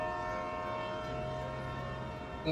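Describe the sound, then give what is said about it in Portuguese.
A steady, droning train alarm siren starts up and holds its sustained tones throughout in the train's cabin, with rumbling machinery underneath and a brief louder burst near the end. No one speaks. “Algo começa a apitar. O trem começa a rodar barulhos de sirene.”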